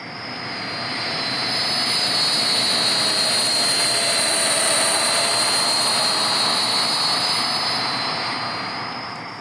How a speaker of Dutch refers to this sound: En dan hebben we het vliegtuig, van, wat van rechts naar links vliegt. Een Viscount straalvliegtuig uit het IMI-archief.